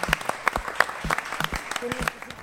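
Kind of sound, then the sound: crowd, studio audience applause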